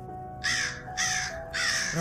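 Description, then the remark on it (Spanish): A raven caws three times in a steady rhythm, each call a loud, harsh, rasping croak, with only a faint low hum beneath and no voices, as the bird speaks in a narrated Spanish-language poem. “Y entonces dijo el pájaro,”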